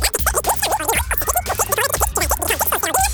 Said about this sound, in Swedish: Lyssna. Som du hör är det en Ford Fiesta R2. Du som har extra känsla för detaljer hör att den är otrimmad och att underlaget är snö och is.